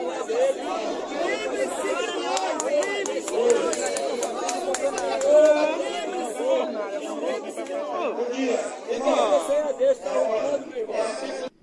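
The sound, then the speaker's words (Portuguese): A dense murmur of many overlapping voices fills a street, a steady crowd chatter with occasional brighter exclamations and faint laughter rising out of the babble, no single speaker standing out. “É isso aí, totalmente perdido no meio da multidão,”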